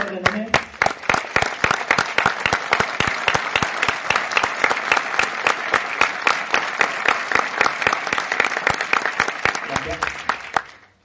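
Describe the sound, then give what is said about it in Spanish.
A seminar audience applauds steadily for about ten seconds as the number 48 is said, dense clapping with some rhythmic sharp claps standing out, then tapering off abruptly at the end. “Dije 48 y aplaudiendo, así que la uso para el seminario, ¿eh?”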